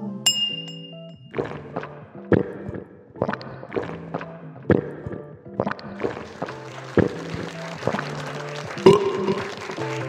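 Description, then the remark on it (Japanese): Glasses of sparkling wine made from Shine Muscat grapes grown at the foot of Mount Fuji clink together repeatedly in a toast, a series of bright, ringing taps about every half second, the clinks growing busier and overlapping toward the end. “シャインマスカットからできております甘さすっきり喉越し爽やかなシャインマスカットのスパークリングワインでございますそれでは乾杯”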